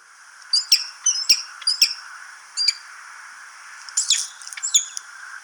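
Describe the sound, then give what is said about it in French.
A peregrine falcon gives a series of sharp, harsh calls in short bursts, some doubled, with brief pauses between. The calls are clear over a faint hiss, with no one speaking. “Devinette animalière : le faucon pelerin”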